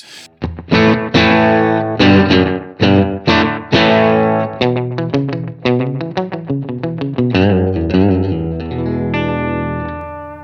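Electric guitar with a slapback delay, played alone: a few punchy, overdriven chords, then a quicker run of picked notes with short repeats, ending on a ringing, sustained chord.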